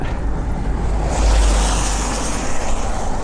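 car passing by

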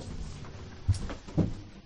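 door being closed

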